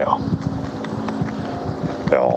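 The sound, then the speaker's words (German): A helicopter passes overhead, its steady engine drone and low, rhythmic rotor thumping filling the air, with faint voices in the background. “Ist er wieder weg? Äh, Helikopter, ja.”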